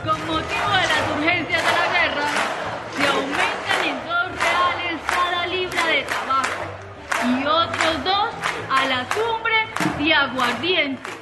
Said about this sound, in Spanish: Ah, pero mira, aquí se prendió la zampablera. Con gritos y zapateos contestó la concurrencia. Las muchachas comentaban, aquí comenzó la fiesta.